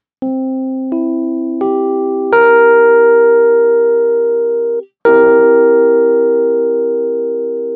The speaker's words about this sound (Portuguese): E a tétrade ainda partindo da mesma tônica, de sétima dominante.